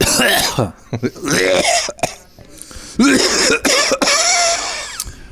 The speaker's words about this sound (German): Aber Räuspern ist das ja gar nicht, das ist ja eher so Brockenhusten, ne? Ja, so ein verschämtes Räuspern, so ja. gibt's ja bei uns gar nicht.